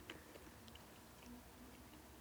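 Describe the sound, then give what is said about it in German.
Faint, wet smacking of lips while chewing, a few soft irregular clicks and squelches spread over a couple of seconds, with no talking. “oh, jetzt merke ich, ich bin am, Schma ich bin am Schmatzen.”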